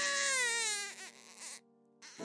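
A baby cries loudly near midnight, refusing its mother's breast milk, a long wailing cry that falls in pitch, breaks off into brief sobbing catches, goes quiet for a moment, then starts wailing again.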